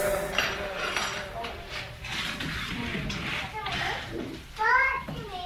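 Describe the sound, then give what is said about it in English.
Children chatter and play, their overlapping voices continuous throughout, with a higher-pitched shout rising near the end and faint clinks of dishes in the background. “well, there were some kids at the end of that.”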